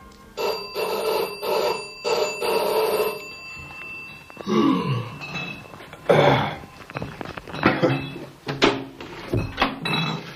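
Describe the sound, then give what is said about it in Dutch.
A milkman rings a doorbell loudly and insistently in rapid repeated bursts for several seconds, then stops, followed by the clatter of a door opening and some shuffling movement. “Eh, ik heb eh, liever niet dat u eh, zo belt hoor.”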